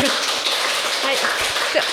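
Dense, steady clapping from a church audience welcoming a visiting third-year KBI student fills the whole stretch, a broad wash of many overlapping claps at moderate loudness, with no one speaking over it.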